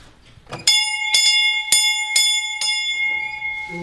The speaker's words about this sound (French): C'est quoi cette cloche